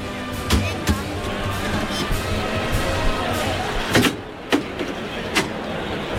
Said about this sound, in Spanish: Pide permiso Hermes Cortés levantando la mano para poder abrir la puerta de Chiqueros. Ahí va. Vamos a escucharlo.